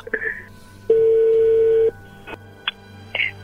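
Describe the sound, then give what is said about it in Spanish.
A telephone being redialed after a call was cut off: a brief two-tone beep, then a loud, steady one-second tone, followed by a couple of short, higher-pitched keypad beeps over faint background hum. “A ver, márcala de nuevo.”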